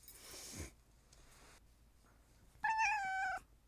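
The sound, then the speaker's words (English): A cat coming into the room at feeding time lets out a single clear, drawn-out meow near the end, preceded by some soft rustling and breathy noise. “Cleo says hello to everybody. It's time for her to eat.”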